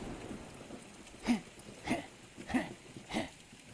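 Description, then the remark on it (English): Heavy rain hisses steadily throughout, while four loud, evenly spaced whooshing bursts rise above it about once every half second, with no voices. “You look out into the storm. There's nothing but darkness and swirling water.”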